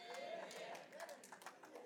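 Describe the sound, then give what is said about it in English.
An audience claps steadily during a sermon about God giving Sarah a child, a dense, scattered patter with voices murmuring and calling out underneath the applause. “Ooh, y'all clapping, but she wasn't.”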